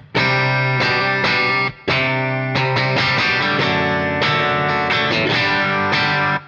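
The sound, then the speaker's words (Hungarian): A distorted electric guitar, its tone likened to a Telecaster, plays loud, sustained chords that change every second or so, with one short break partway through. No one speaks over it. “már szinte telekaszter hang.”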